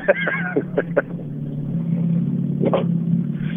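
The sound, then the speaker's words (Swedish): A car engine hums with a steady low drone that swells slightly louder as the car speeds up toward top speed, its pitch edging upward, heard from inside the car. Brief snippets of voices break in early on and again near the end. “Eh, och nu ska vi öka lite.”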